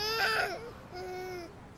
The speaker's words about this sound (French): mais son bébé cessa de pousser ses cris stridents.